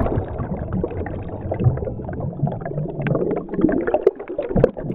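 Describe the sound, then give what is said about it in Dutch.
Steady underwater bubbling and gurgling in the sea runs throughout, muffled, with a busy churn of small pops and bursts of air rising through water after a dive. No voices. “Want we nemen een verfrissende duik onder water.”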